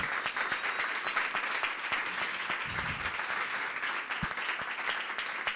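An audience claps steadily, a dense, continuous patter of many hands with no talking, holding an even loudness for the whole stretch, applauding a poet at the end of the season.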